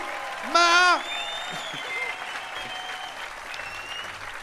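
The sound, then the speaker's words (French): A festival concert audience applauds and cheers for the volunteers and for themselves. A loud whooping shout comes at the start over steady, dense clapping that continues throughout. “Et euh, faites du bruit pour les bénévoles. faites du bruit pour vous.”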